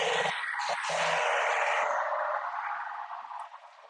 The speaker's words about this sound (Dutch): oh, even wachten hoor, er komt een of ander karretje voorbij.